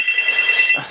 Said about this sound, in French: Ah zut, il y a mon téléphone qui sonne. J'espère que Madame qui, ah oui, c'est ma fille qui appelle.